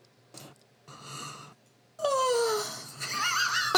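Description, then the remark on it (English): A person imitates their own strange, exaggerated yawn: a few short breathy, strained vocal bursts lead into a loud, drawn-out groan that slides downward in pitch and ends with squeaky, wheezing sounds. “That's that was a great imitation of your own mm-hmm. yawn.”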